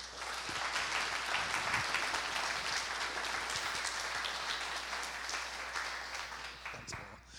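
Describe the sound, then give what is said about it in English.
Steady applause from a church audience welcoming a speaker, a dense wash of many hands clapping at a constant level before tapering slightly at the end. “would you give um, dr Ken Shank a humongous gathering welcome as he comes”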